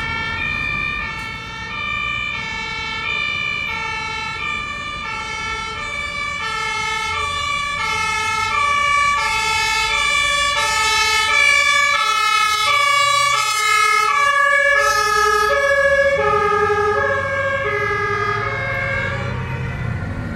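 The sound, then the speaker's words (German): A loud two-tone emergency siren alternates steadily for the whole stretch, gradually shifting in pitch as the vehicle passes, with road traffic rumbling underneath, on a sunny February day. “Oh, jetzt die Sirene nehmen wir noch mit.”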